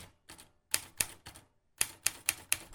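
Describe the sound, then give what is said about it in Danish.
Sharp, hard typewriter keystrokes clack in two quick bursts with a brief pause between, each strike crisp, as a woman types on a typewriter at home at night, with no voices present. “Hun havde fået en skrivemaskine hjem, og den havde en hård og fred lyd.”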